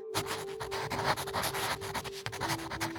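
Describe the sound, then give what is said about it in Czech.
Continuous scratching of a pen moving across paper, with quick strokes and brief pauses in an uneven rhythm, over a faint steady hum and no voices. “Zvuk pera na papíře.”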